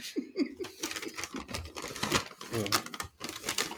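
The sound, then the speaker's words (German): Continuous crinkling and rustling of gold gift wrapping paper being pulled open while unwrapping a present, with crisp bursts of crackle throughout and faint voices underneath. “dann ich mir so gedacht, Scheiße, nimmt der Typ wirklich goldenes Geschenkpapier, was man nicht einfach so ersetzen kann?”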